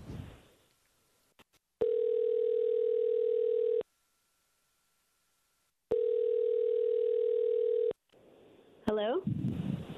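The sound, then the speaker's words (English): An outgoing phone call's ringing tone sounds twice, each steady buzz lasting about two seconds with a silent pause between, clear. The call is placed by the Star 1013 radio morning show for its second date update segment. Brief talk comes before it, and a voice follows at the end. “So what we're gonna do is we're gonna call her, mute your phone out, and we'll see if we can get some answers.”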